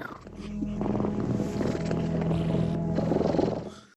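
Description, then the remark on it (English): Someone imitates the contented purr of a cat being petted: a steady, rolling rumble held for about four seconds at moderate volume, fading at the end, with no words spoken. “they came back and they petted me and I accidentally made the sound that means I am cat, which is belonging to you.”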